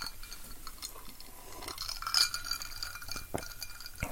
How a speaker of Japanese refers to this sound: あー、氷がいい音するね。いや、超気持ちよくない涼しげな音。